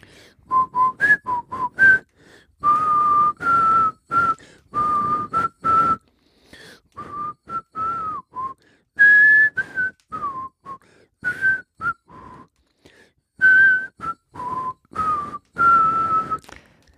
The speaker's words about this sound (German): Es ist echt ziemlich mega schlecht gepfiffen.